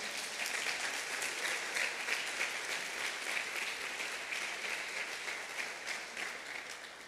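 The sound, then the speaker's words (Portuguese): Sustained applause for Jesus from a large crowd, a dense, steady wash of many hands clapping that holds at an even loudness for several seconds with no voices on top. “Se você crê, dê um forte aplauso a Jesus.”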